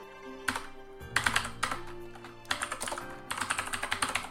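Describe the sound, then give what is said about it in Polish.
Keys clatter on a computer keyboard as an email address is typed, in several quick bursts of rapid tapping separated by short pauses, with a faint steady hum underneath and no voices. “E, ja wpiszę sobie tutaj adres e-mail.”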